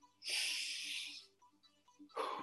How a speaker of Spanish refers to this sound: Respira. Sácalo. Sácalo. Vamos a hacer cinco respiraciones de nuevo, ¿ok? Número uno. Sácalo. Número uno, dos.